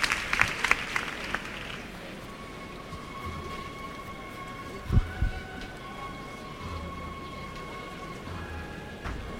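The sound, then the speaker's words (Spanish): A large crowd in a packed Plaza del Duque applauds steadily and continuously at night as the Misterio de la Sentencia procession float is received, a dense wash of clapping with a few faint sustained tones drifting above it and no one speaking. “Mira cómo se recibe en la Plaza del Duque.”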